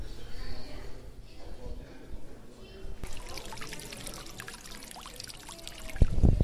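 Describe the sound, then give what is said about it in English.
Steady water trickling and splashing from an indoor fountain at the San Francisco Conservatory of Flowers, a warm, humid building full of plants, continuous, growing brighter halfway through, with a soft murmur of crowd chatter in the background. “That's the sound of uh, water and fountain live here on location, standing here.”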